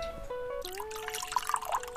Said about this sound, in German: Oh, ah, da schenkt man erstmal einen ein.